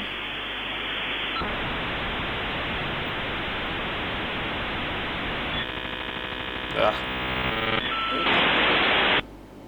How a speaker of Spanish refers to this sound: no podías usar el teléfono si estaba conectado. Qué insoportable esto, ¿eh? ¡Ah! Insoportable. Vos levantabas el teléfono y er-, era este ruido el que hacía. Porque el, el internet entraba por la línea del teléfono.